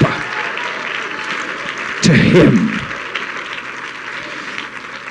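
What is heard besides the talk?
audience clapping hands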